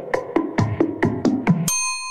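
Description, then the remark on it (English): Opening of a hip-hop song: six bright, chime-like notes strike in a quick, steady rhythm, then give way to a sustained ringing tone. No one speaks over it. “Yeah, I'll play that, that beginning again.”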